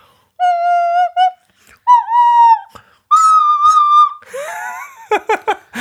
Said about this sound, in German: Das ist eine Nasenflöte. Da, da, pust, da, da atmet man rein und mit dem Mund macht man die Töne.